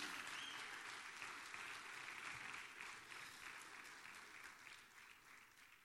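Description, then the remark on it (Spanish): An audience applauds for Jesus during a sermon, a dense, steady wash of clapping hands that tapers off slightly toward the end, with no one speaking over it. “Dale un aplauso a Jesús.”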